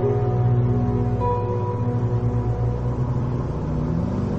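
A car engine hums steadily as the vehicle drives at night along a road running between snowy fields, a low rumbling drone with faint tonal whine running throughout, no voices present.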